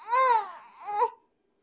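A baby girl lets out two short, fussy cries, the first longer and wavering, the second a brief rising whimper, before falling quiet.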